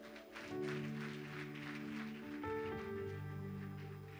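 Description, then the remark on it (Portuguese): A crowd claps steadily for several seconds, a dense wash of applause given to the Lord for an actress, while sustained keyboard chords play underneath, shifting to a new chord midway. “Dá um aplauso ao Senhor para nossa atriz aqui.”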